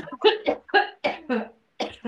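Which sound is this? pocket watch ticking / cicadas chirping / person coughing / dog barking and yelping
person coughing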